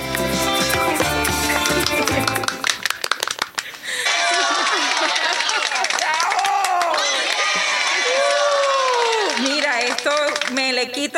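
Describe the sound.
A few seconds of music give way to a loud, steady burst of crowd applause with cheering and shouting voices rising over the clapping, sustained to the end.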